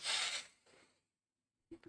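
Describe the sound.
A person takes a deep, controlled breath to keep from vomiting: a loud, airy rush of air, then a softer second breath, a short silence, and a voice starting to speak at the very end.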